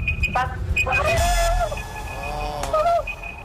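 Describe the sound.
A quiz contestant's own timer alarm goes off with a loud, repeating electronic beep and warbling, siren-like tones rising and falling over about three seconds, with voices murmuring underneath.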